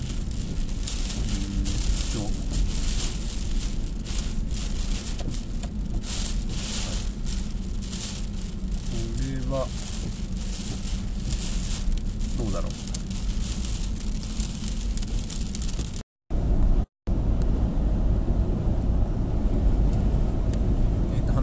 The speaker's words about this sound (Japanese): 今ちょっと車の運転中で前方が除雪の作業をしていて